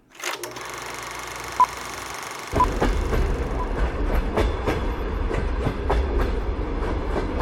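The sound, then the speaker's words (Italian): A train bound for New Jersey, passing Menlo Park on a cold December night in 1880, rolls steadily along the rails with a rhythmic clickety-clack of wheels over track joints, a deep rumble building after a couple of seconds and continuing loud to the end. “Tutto ha inizio in una fredda notte del dicembre del 1880 quando i passeggeri di un treno diretto nel New Jersey, all'altezza di Menlo Park, scorgono dal finestrino”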